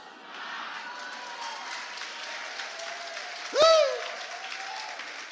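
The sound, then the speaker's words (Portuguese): A church audience applauds steadily during a Christian sermon for the whole stretch, a dense even patter of many hands, with one short, loud, high whooping cry or whistle breaking through about two-thirds of the way in. “Você fala, está consumada, aí você bate palma e dá aleluia, glória a Deus, aleluia.”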